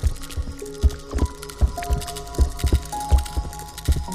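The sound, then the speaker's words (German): The spines of an Amagasaurus rattling together as the dinosaur shakes its neck from side to side: a run of hollow, knocking clatters in an uneven rhythm, fairly loud, over a faint steady tonal hum, with no voices. “Der Amagasaurus schüttet seinen Hals von Seite zu Seite, so dass seine Stacheln aneinander rasseln.”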